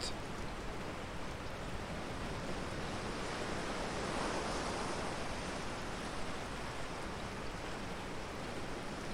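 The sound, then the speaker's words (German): Steady roar of ocean surf breaking against rocks, with wind tearing at the cliffs and whirling spray into the air, a dense, continuous wash of noise that swells slightly midway through. No voices. “Die Wellen brechen mit donnerndem Getöse an den Felsen, während der Wind an den Klippen zerrt und die Gischt in die Luft wirbelt.”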